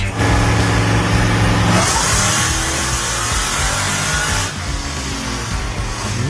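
A 600 horsepower supercharged Chevy work van engine idles with a deep, steady rumble, then revs hard into a loud, rising roar that holds strong for several seconds before easing slightly, with no talking.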